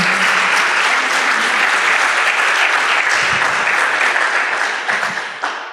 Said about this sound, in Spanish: Les damos un aplauso.